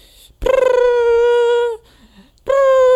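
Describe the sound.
A loud voice imitates the opening riff of a song: a buzzy, pulsing attack that settles into a long held note, a short pause, then the same sustained note starts again, with no talking.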